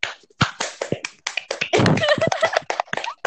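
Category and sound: crowd, clapping applause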